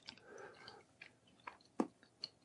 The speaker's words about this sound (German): Er kaut.